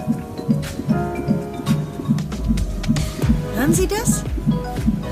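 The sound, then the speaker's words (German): A rapid, steady whooshing pulse of an unborn baby's heartbeat, about two to three beats per second, as through an ultrasound monitor, with a person briefly speaking over it. “Das ist der Herzschlag Ihres Babys.”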